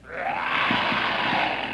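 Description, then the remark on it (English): A lion roars, a loud, rough, sustained growl lasting nearly two seconds with a few throaty pulses inside it. No one speaks over it. “Here comes a lion.”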